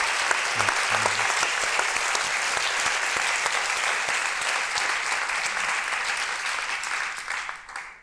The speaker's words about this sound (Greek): Και θέλω να σας δώσουμε τα φυλά μα και, το... και το χειροκρότημά μας σήμερα που είστε εδώ, δυνατές και με δυνατή τη φωνή σα.